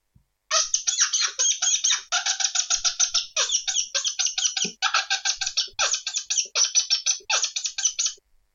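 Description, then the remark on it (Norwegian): A fox-call whistle, with the lips smacked into it to amplify the sound, blown in rapid, shrill squeaking bursts that mimic an angry, disturbed rodent in the grass; the chattering squeals run almost nonstop for about eight seconds, loud, with no talking. “Og hvis du smatter i den fløyta her, så får du forsterker du den lyden litt, grann.”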